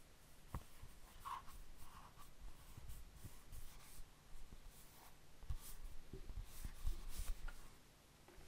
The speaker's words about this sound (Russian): Дальше звук, издаваемый пальцами при трении с бумагой. Ну-ка.